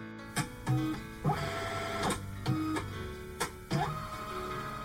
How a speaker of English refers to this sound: If you've ever worked in an office, a school, if you ever had to run to, say, Kinko's or Staples, you know that sound. Yes, scanning documents. Oh, love it. All right, maybe not. It's tedious, it's boring, it's something that we all have to do